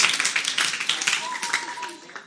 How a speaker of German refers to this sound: Gebt euch mal selber einen fetten Applaus.